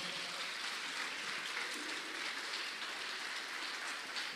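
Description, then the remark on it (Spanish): A crowd applauds the Lord steadily, a dense wash of many hands clapping at once that holds at an even level throughout with no speech over it. “Si usted lo cree, se lo da fuerte y grande al Señor.”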